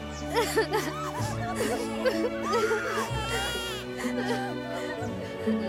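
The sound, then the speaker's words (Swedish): A crowd of wedding guests sobs and wails together, their wavering cries overlapping continuously above steady, sustained music from an orchestra, fairly loud throughout. “Och nu grät plötsligt alla gäster.”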